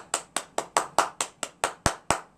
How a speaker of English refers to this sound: I'm good. You go ahead and keep clapping.